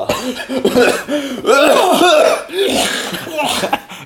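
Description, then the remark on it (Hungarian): Loud coughing and choking: a run of strained, voiced hacking bursts and gagging sounds over about four seconds, rising and falling in pitch with brief pauses between fits. “most már a top 10-nél vagyunk ez pedig a köhögő fulladozó.”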